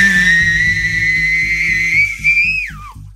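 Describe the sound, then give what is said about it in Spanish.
A loud, sustained human whistle holds a steady high pitch with a harsh, turbine-like whine, over a pulsing low rumble, then bends sharply downward and cuts off after about three seconds. “Mira, eh, voy a usar el sonido que llevo mucho sin, sin recurrir a él, pero era muy bueno, como de como mi chiflido tipo turbina, sí.”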